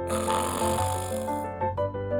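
A child snoring as she drifts off to sleep, a steady voiced, tonal drone with a brief dip and restart near the end, moderately loud and heard alone without talk.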